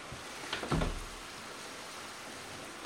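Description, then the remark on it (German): A steady wash of heavy rain hisses throughout, with a couple of brief louder knocks or splashes early on and no voices. “Jetzt regnet es ziemlich heftig.”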